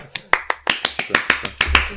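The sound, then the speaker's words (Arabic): A short burst of steady, rhythmic hand clapping in praise of a participant in the discussion, about a dozen sharp claps in quick succession at an even pace, fairly loud throughout the two seconds. “برافو عليك تصفيق”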